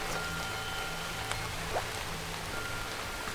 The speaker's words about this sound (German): Die Regentropfen fallen auch aufs Dach